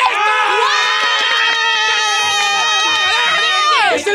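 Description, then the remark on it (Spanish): A person cries loudly in a high-pitched, sustained wail that barely breaks for about four seconds, then trails off in a falling sob, after winning a prize on the Don Cheto show. “Ahí está llorando, dólares!”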